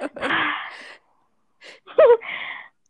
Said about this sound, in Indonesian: Tolong nafas aku udah kedengeran kan